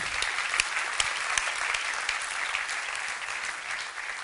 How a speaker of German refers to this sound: Dankeschön, ihr habt einen guten Job gemacht. Lassen Sie Ihnen einen Applaus geben.